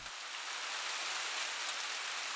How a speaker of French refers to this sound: L'ambiance déjà pesante est couronnée d'une jolie pluie dont seul l'automne parisien détient le secret. Une pluie qui vous plonge dans la nostalgie. Une pluie qui vous plonge dans la mélancolie.